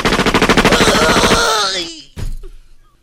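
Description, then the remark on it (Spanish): A chainsaw roars loudly with a rapid, stuttering engine rattle, then winds down with a falling whine, followed by a short sputtering burst as it cuts out. “Saca la motosierra. No, una motosierra no.”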